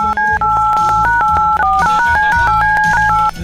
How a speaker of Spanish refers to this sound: Muy bien, ah, tomo el teléfono. Empiezo a marcar en este momento.